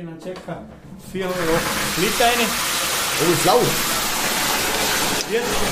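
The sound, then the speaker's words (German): A large tub at the Impulshotel fills from below with bubbling, rushing warm thermal water for a radon bath, a steady loud hiss that swells in after a second and runs on continuously while people talk over it. “Und für mich heißt es jetzt, zuschauen, wie sich eine gewaltige Wanne vom Boden aus mit dem warmen Thermalwasser sprudelnd füllt.”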